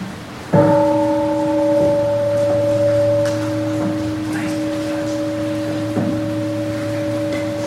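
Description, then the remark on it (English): A large gong is struck once with a sharp attack, then rings on with a steady, deep, sustained hum that fades only slightly over several seconds, with faint room noise beneath. “right, the big gong.”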